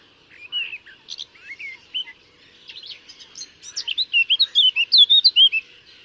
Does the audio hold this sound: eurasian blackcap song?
yes